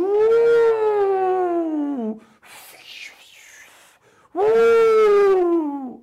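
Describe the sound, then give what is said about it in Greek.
A voice imitates the howling winds that rise in the Sahara desert, with two long, loud, falling "ooo" wails separated by a breathy whooshing hiss that mimics gusting air. “Ε, σηκώνονται κάτι αέριδε παντελή αμπατζή. Και κάνει. Ου,”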